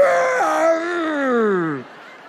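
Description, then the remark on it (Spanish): A voice imitates the loud straining grunt a weightlifter makes in a gym when lifting a barbell: one drawn-out, strained groan that slides downward in pitch and cuts off after nearly two seconds. “Y cuando la levantan emiten un gruñido fuerte para que se escuche en todo el gimnasio.”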